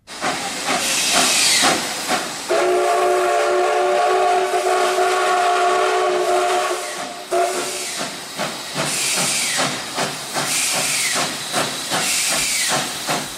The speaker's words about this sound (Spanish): Ahí está el tren de la mina. Como en Portaventura. Eso es, que suena, que suena más que el de San Mamés. Es histórico, además, recogía el mineral tratado en empresas como Orconera Iron Ore Company, de origen inglés, y lo transportaba a Ugarte,